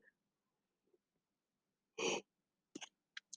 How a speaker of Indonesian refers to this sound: Maaf kalau saya mulai nguap-nguap, sepertinya saya mulai ngantuk.